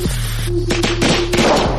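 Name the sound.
firecrackers exploding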